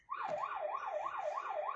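A highway police car siren wails in a fast, steady yelp as it chases a black sedan illegally driving on the shoulder of National Freeway 5, its pitch sweeping up and down about six times in under two seconds, loud and continuous with no voices.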